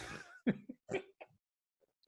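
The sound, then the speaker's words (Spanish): A burst of spluttering followed by several sharp coughs in an uneven rhythm as someone nearly spits out water in front of a microphone, then quiet. “iba a escupir el agua acá.”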